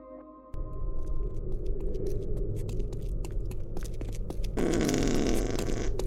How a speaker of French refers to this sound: Ah, me suis fait caca dessus.